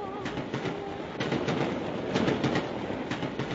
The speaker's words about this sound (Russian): Поезд Москва-Алма-Ата уже вторые сутки шел по казахстанским краям.